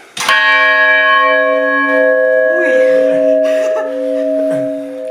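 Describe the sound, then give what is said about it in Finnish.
The official town tower clock of Hamina, right beside the listeners, strikes one: a single loud clang followed by a long, steady ringing hum that slowly fades, with faint murmuring voices beneath it. “Tässä on nimittäin kaupungin virallinen tornikello juuri tässä meidän vieressämme.”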